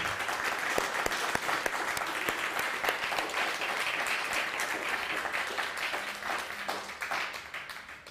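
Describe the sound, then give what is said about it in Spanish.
Sustained audience applause, a dense wash of many hands clapping steadily for about eight seconds, fairly loud and even, tapering slightly toward the end with no talking over it. An audience gathered for Shabbat applauds all the nations. “Ah, que se escuche fuerte ese aplauso, parece que no desayunó, hombre.”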